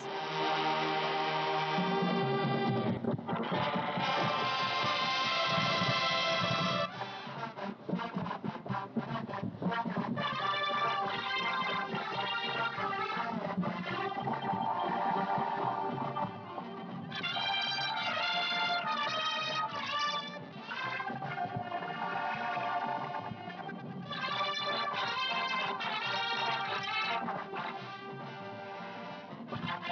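A recording of the Águilas Doradas marching band plays loud, continuous music with dense brass-like harmonies and steady low percussion, the sound staying strong and busy throughout without pauses or voices.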